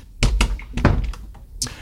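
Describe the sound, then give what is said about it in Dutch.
A small door is pushed shut, with a few short wooden thunks and clicks spread over a second or two, ending in a final sharper knock as it latches. “Oké, doen we het deurtje weer dicht.”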